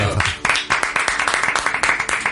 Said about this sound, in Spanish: Y hablando del lenguaje, creo que tenemos que rendir un homenaje a la traducción al español. Francisco Porrúa. Un aplauso, por favor.